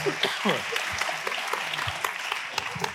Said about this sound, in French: bah, applaudissez-le quand même, le mérite.